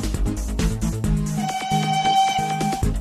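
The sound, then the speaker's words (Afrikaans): A toy train chugs along with quick rhythmic clatter, then a steady high whistle sounds for over a second while the rolling continues underneath, fairly loud. “Is dit dalk die tini trein wat ek daar gewaar?”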